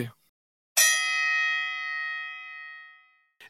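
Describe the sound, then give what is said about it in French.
A single loud gong strike with a sharp metallic attack, its bright shimmering ring sustaining and slowly fading over a couple of seconds, with no talking over it. “j'ai envie de dire fais péter le gong.”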